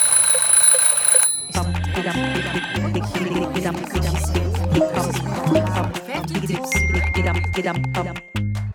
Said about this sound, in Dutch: Een nieuwe ochtend brak aan. En de wereld werd wakker zoals ze dat altijd deed. Op het nerveuze ritme van meldingen, reminders en pushberichten.